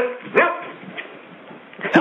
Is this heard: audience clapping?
no